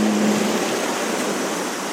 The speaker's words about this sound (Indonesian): ombak yang lumayan gede karena gue sekarang ada di daerah pantai di mana pantai ini paling dekat dari pusat kota Mataram